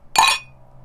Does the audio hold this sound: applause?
no